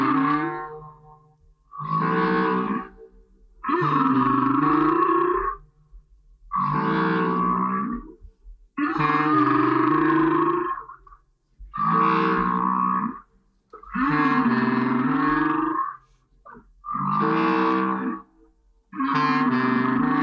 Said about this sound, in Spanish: los cantos de las ballenas jorobadas